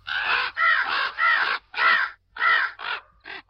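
A crow caws repeatedly, about seven harsh, raspy calls in quick succession with short gaps, loud, the last few calls shorter and clipped.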